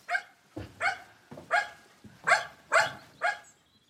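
A dog in the countryside barks six times in a steady, fairly quick rhythm as it comes toward the speakers, the sharp, loud barks with no talking over them.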